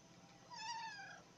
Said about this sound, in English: It's my cat, y'all. My cat.